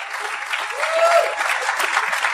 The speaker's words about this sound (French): qui est là dans le coin, que j'aimerais ça qu'on l'applaudisse, qui est gêné en ce moment vu qui aime ça avec low profile.